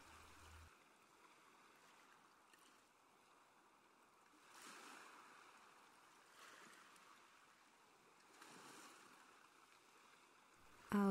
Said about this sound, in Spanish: Escucha cómo revientan las olas en la orilla